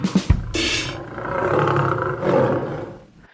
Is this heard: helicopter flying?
no